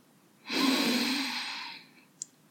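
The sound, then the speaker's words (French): A deep, airy breath drawn in as a relaxation exercise, lasting about a second and a half and fading out, followed by a tiny click; no one speaks. “Prenez une grande inspiration.”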